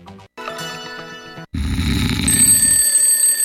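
A loud alarm clock rings in a steady, sustained tone, opening a radio advertisement for the Materassi Barone mattress store; it briefly cuts out, then resumes amid a rougher, noisier burst with low rumbling underneath, ending shrill and continuous.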